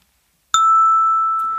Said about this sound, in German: Ich habe hier das Glockenspiel. da suche ich mir jetzt einen Ton aus und dann schauen wir mal,